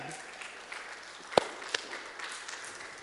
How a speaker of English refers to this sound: Three people have come to me and said, I want to be baptized. I want to stand with Christ. He is my Lord and He's my Savior. If we cannot rejoice in that, there is something seriously, seriously wrong. Go ahead, you can clap.